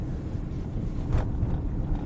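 Steady low rumble of road noise inside a moving car, a constant droning hum with a brief brighter swell near the middle and no voices.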